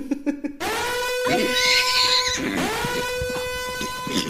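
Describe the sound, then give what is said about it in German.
A horse neighing sound effect: two long, loud, drawn-out whinnies right after a brief burst of voice at the start. “Bei Pferden. Ponyalarm!”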